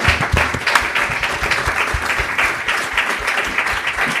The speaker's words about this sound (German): Äh, bitte nochmal einen Applaus für die drei,